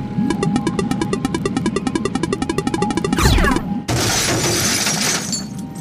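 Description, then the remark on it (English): A submarine crashes into a station: a loud crash with a rapid rattling, shattering clatter, then a sweeping metallic groan and a dense, harsh roar of breaking debris, continuous with no voices. “I, uh, I hit the, I hit the station. That, that didn't sound good.”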